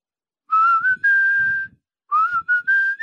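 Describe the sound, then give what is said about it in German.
A person whistles a short melody in two phrases, clear high tones gliding up and holding steady notes, with a brief pause between phrases and no talking. “bei der Aufnahme äh, hatten die keine Gitarre da, also als sie das Sample machen wollten und damit irgendwie, damit sie es nicht vergessen haben, das eingepfiffen und dann ist es am Ende so geblieben.”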